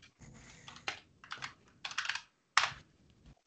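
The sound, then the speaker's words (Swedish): Rapid clicking of keys on a computer keyboard as someone types a message on Messenger, fairly quiet, coming in several short bursts with a few louder clacks, no voices. “Jag skrev till Niklas på Messenger.”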